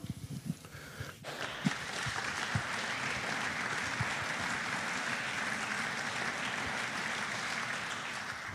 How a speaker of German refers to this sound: Total berechtigter Applaus